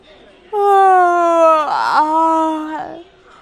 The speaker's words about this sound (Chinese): 而小盲道却不停的打着哈欠，一副困得马上要睡着的样子。